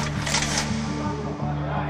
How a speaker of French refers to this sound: Ils m'ont jeté un blouson sur la tête pour ne pas que les photographes me volent mon portrait. Pourtant, ils me mitraillent, j'entends les flashs crépiter autour de moi.